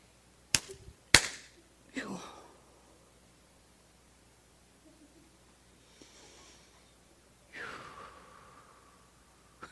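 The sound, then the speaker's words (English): Two sharp, loud hand claps in quick succession, followed by a few soft, breathy bursts of noise and long stretches of near silence. “And I'm going to clap my hands.”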